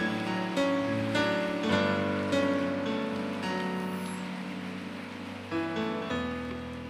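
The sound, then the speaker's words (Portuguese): Steady crowd applause fills the whole stretch, a dense wash of clapping running beneath sustained keyboard chords that shift every second or two, with no voices standing out. “Pode aplaudir, pode aplaudir, pode aplaudir.”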